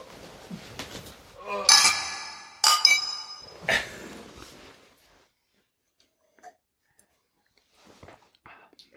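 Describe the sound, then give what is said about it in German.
Beer glasses clink together in a toast during a craft beer tasting, three bright ringing knocks within a couple of seconds, with murmured voices around them and then near silence with faint small sounds. “wir sollten es mal probieren. Wir nehmen jetzt. Haben wir Anschluss? Prost. Prost.”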